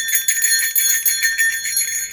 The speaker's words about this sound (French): c'est une cloche à ours. Mm-hmm. Donc, les gens disent, mais c'est quoi une cloche à ours? C'est pas une cloche à vache, non? Non, non, c'est euh, dans le fond, c'est un petit item qu'on accroche après son sac à dos lorsqu'on fait des randonnées